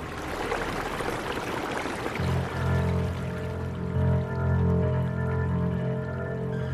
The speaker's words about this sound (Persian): عرض رودخونه داشت کمتر و کمتر میشد و آبشم خیلی اومده بود پایین یه جاهایی فقط گل بود دیگه ولی حس می کردم صدای آب هزار برابر بیشتر شده